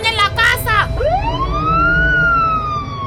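A police patrol car siren wails up from low to high and holds a long rising tone, loud, after a brief burst of rapid warbling yelps at the start, as a woman is taken away in the patrol car.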